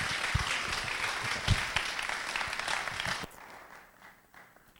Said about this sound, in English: a round of applause as well.